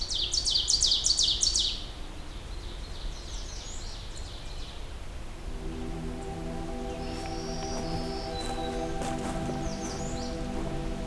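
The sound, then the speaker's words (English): An American Redstart sings a high, thin series of quick notes, louder at first and then fainter, repeating a few times while a low steady hum comes in partway through. “Another red start.”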